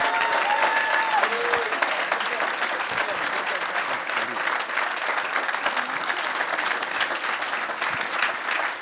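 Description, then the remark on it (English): A large church crowd claps loudly and steadily for several seconds to welcome two pastors coming up to speak, a dense continuous wash of applause with faint voices and cheers mixed in. “would you please just give like the best connect welcome you can to uh, Pastor John and Pastor Helen Burns”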